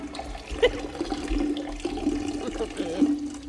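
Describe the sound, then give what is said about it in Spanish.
A coachman in London urinating: a steady stream of liquid splashing continuously for a few seconds, moderately loud, with faint low background rumble. “El cochero está cambiando el agua al canario.”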